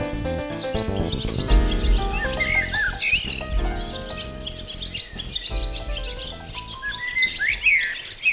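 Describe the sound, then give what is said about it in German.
A dawn chorus of many songbirds at 4 a.m. in June, with overlapping chirps, trills and whistles at many pitches filling the air continuously, some clear, over a low steady background rumble. No one speaks. “Es zwitschert in vielen Tonlagen. So klingt der Juni bei uns im Geräuschearchiv.”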